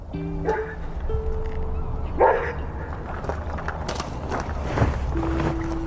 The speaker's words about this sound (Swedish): hunden eller? Ja, Det var därför han skällde och så stack iväg då.